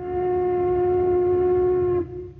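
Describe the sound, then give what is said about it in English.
A factory whistle blows one long, steady, loud note over a low rumble, holding for about two seconds before cutting off abruptly, leaving only faint background noise. “The familiar landmarks on the way, the cycle that always begins with the sound of the factory whistle,”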